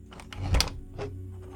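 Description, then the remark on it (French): An odd mechanical clock sound: a quick run of clattering clicks building to a loud ratcheting burst, then one more click over a low steady hum, fairly loud. “L'horloge fait un son que je n'ai jamais entendu auparavant.”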